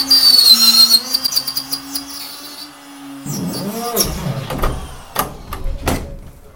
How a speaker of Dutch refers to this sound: Dus eh, gaan we eerst netjes proberen om het slot eruit te boren.